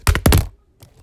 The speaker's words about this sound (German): Sorry für den kleinen Knall, das war mein Handy.